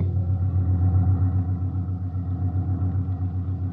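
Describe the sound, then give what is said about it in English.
An old ambulance, called a jalopy, drives along a road toward Madrid, its engine droning in a steady, low, rumbling hum that wavers slightly in loudness throughout, with no voices. “This ambulance makes pretty good time for a jalopy.”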